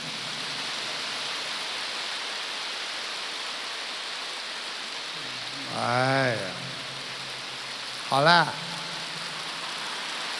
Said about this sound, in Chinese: 你看你们停不下来了，其实你们是锻炼。有一种锻炼叫鼓掌，因为十指连心，心开心才会鼓掌。